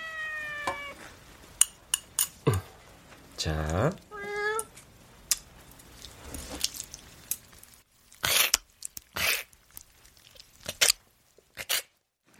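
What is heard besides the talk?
cat meowing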